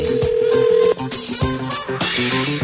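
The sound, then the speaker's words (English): A steady telephone tone holds for about a second, then gives way to a quick run of dialing beeps as a radio host calls a listener for a cash giveaway, over a dense, busy musical background. No one speaks. “Call this the money call.”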